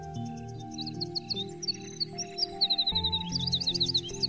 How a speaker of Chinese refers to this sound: 等月亮升到高空时，夜莺就飞到玫瑰树上，它将胸口抵住树上的刺，开始唱歌。